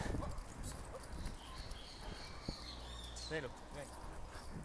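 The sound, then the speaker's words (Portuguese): Out on a busy street, a loose dog crossing the street lets out a few sharp barks over steady traffic rumble, with people's voices mixed into the background noise. “Vocês acabaram de presenciar um cachorro solto e eu atravessando a rua e ele atravessou para vir em cima da escada.”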